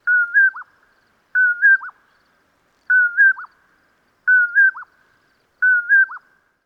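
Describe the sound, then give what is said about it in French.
A western North American bird, ranging from southeastern British Columbia to central Mexico and wintering in the southwestern United States, repeats the same short whistled call five times at steady intervals, each a clear rising-then-dropping phrase, with no other sounds around it. “Comme à l'habitude, voici la voix de l'oiseau à l'honneur aujourd'hui.”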